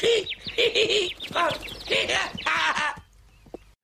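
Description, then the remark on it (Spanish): A bird honks repeatedly in a rapid, rising series of loud, nasal calls, clear, before falling quiet at the end. “¡Un pájaro!”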